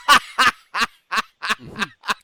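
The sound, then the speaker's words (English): A budgerigar chirps seven times in a quick, steady rhythm, each call short, raspy and harmonically rich. The bird sounds fairly loud, with no talking around it. “I'm glad it's all over for you and you and your your budgie in the background can chirp away at each other.”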